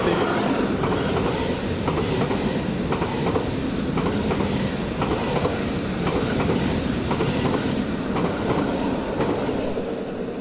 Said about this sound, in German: Also wenn man sich mal einen Hauptbahnhof stellt, dann so klingt ein durchfahrender IC.